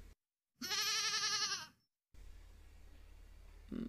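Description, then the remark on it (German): A goat gives one loud, quavering bleat lasting about a second, clear, followed by a low steady background hum with no talking. “Wir haben eine Kuh und eine Ziege.”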